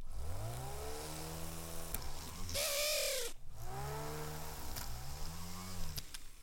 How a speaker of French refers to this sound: Nous venons de percer le métal afin de pouvoir y poser un ou deux petits diamants afin de sublimer la pièce.